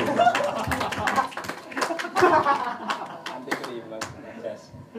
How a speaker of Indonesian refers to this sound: Tepuk tangan untuk filosof dari Bobo.